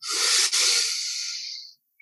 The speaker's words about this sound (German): Nach 30 Mal atmen wir einmal komplett ein, richtig aktiv.